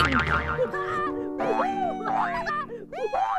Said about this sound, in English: Next up, bedroom trampolining!